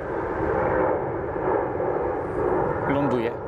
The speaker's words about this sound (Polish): samolot.